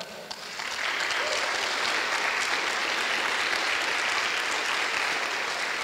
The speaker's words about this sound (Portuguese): Você pode dar um aplauso para o Senhor?